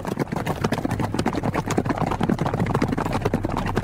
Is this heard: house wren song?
no